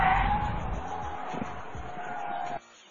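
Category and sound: vehicle, car tires skidding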